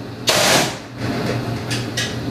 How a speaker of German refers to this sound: Das wäre jetzt nur das Rauschen der Presse, aber sonst hört man jetzt eigentlich nichts.